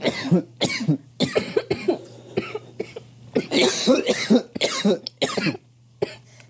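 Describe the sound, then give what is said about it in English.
Several people cough hard in repeated, ragged bursts over about six seconds, with harsh hacking fits and brief gaps between them and a low steady hum underneath. “this is the portion of the show where you listen to us hack out our lungs.”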